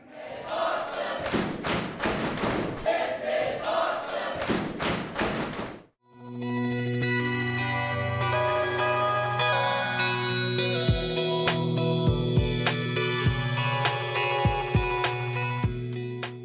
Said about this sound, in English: The crowd's reaction says it all.